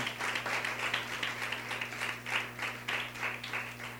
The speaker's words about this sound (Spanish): Si la palabra de Dios te incomoda, dale un aplauso a Dios. Amén.